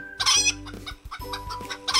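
A Thai chicken clucks in a quick series of bright, raspy calls, several bursts over about two seconds with short gaps between them, and no one speaking.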